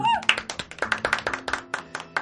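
A brief round of applause welcoming a guest tango guitarist, with quick, sharp claps in an uneven rhythm from what sounds like a small group, over a faint steady hum.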